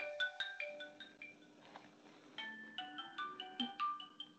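A mobile phone ringtone plays a quick, repeating electronic melody of short bright notes, sounding alone at a modest level with a brief pause midway before the tune resumes.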